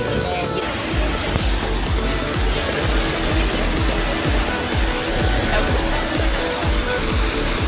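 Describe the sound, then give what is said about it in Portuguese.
A fountain in the capital, in hot, dry weather, splashes and rushes continuously, fairly loud, with a steady hiss and a quick, uneven patter of droplets hitting the surface. No one speaks. “A água não é uma imagem muito fácil de mostrar, mas a gente pode ouvir aí o ruído da água, o formato aqui do chafariz, diferentes formas, diferentes danças, movimentos da água.”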